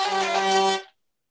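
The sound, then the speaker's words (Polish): Sympathetic strings, tuned here so they sound out of tune, ring out together in a bright, steady chord of overtones, sustaining for under a second before fading quickly into silence, with no voices present. “Tutaj brzmią u mnie, jakby były fałszywie nastrojone, ale to dlatego, że w ten sposób nie będę ich używał.”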